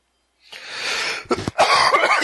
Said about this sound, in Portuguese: Vamos fazer um cast todo tossido, cara. A gente fala, não, só tosse.